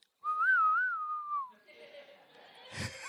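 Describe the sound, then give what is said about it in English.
A person whistles a short, wavering tune meant to mimic a banjo, imitating a Western film scene with Clint, clear for about a second, then fades into faint background noise and a brief sharp burst. “and there's Clint with his banjo, and he kills all of them.”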